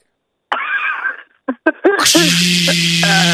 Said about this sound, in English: I'm drilling nails in the wall for pictures.